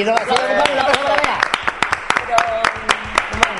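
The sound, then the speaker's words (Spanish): A short burst of applause during a live broadcast, sharp irregular claps from a small group, with voices calling out over the first second before the clapping continues on its own and thins out. “Un aplauso.”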